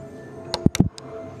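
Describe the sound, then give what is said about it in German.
A few quick, hollow knocks on a model rock replicating a comet fragment, about four taps in a short irregular cluster, fairly clear with a dull resonant thud to each. “Ich habe noch einmal dran getippt. Es klingt hohl, aber es ist sehr schön nachgebildet.”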